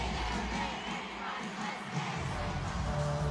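A concert crowd screams and shouts in a dense, continuous roar that stays loud and steady throughout, with no distinct words standing out from the mass of voices.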